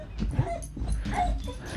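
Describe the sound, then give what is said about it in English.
A dog whimpers and lets out short, high yips in quick succession, with faint background noise underneath. “But yeah, our dog is going crazy.”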